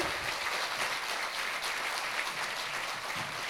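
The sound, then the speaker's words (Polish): A crowd applauds steadily to bring actor Tomasz Kot and musician Marcin Masecki onto the stage, a dense wash of many hands clapping at once, fairly loud and sustained throughout without any speech. “Nadal ich nie widzę, może oklaski pomogą, więc.”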